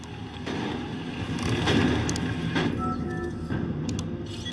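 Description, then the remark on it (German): A steady mechanical engine drone with a low rumble and faint harmonic whine from a car being driven in a video game, holding fairly loud throughout with a few brief clanks and surges. “Diggi, du bescheuertes Auto!”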